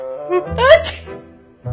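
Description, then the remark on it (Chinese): One big sneeze from someone who has caught a cold, likely voiced: a short rising breathy "ah" builds into a loud, sharp, hissing "choo" burst, then trails off into quiet. “安迪打了一个大大的喷嚏。”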